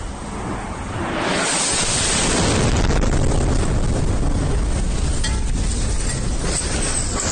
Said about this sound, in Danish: Det her, det er øh, lyden af en øh, kvinde, der går rundt i, øh, i Kiev. Videoen er fra i går, og øh, det, I kan høre i baggrunden, det er en ret stor eksplosion, der foregår i, øh, i byen.